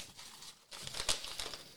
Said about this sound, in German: Genau. Ähm, das ist ein Stück Geschenkpapier. Ja. Ich raschel mal ein bisschen. Ja, rascheln